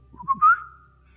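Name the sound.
imitated whistling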